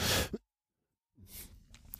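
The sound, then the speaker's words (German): A short, breathy cough bursts out, followed by a second of silence, then muffled throat noises and one more sharp, brief cough at the end. No one speaks. “Ich muss da kurz husten.”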